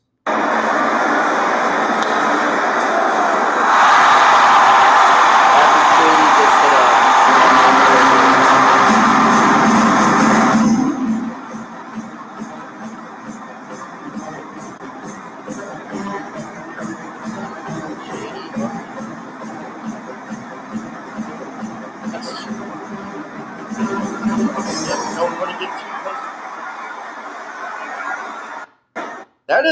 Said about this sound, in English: so here we are. Here is the crowd noise.